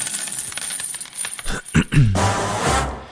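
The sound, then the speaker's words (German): A coin drops onto a hard surface with a few quick bouncing clinks, then spins down in a bright, ringing metallic rattle that fades out. Clear, with no voices. “Spanne er die Pferde ein und spute sich, denn springend klingt die Münze.”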